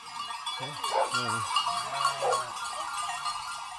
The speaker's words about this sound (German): Oberhalb von Partenkirchen treiben die Männer der Weidegenossenschaft rund 450 Bergschafe auf die sogenannte Vorweide an den südlichen Ausläufern des Wank, dem Partenkirchner Hausberg.